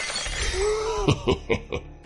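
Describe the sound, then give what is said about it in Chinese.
Glass smashing with heavy blows: a low ringing tone, then four sharp crashing hits in quick succession, each bursting with bright, crackling shards, as a Jaguar car's window glass is smashed with a steel pipe. Loud, with no voices. “所以这一刻，光头眼中露出寒光，突然抽出钢管，一下子将车玻璃砸碎。”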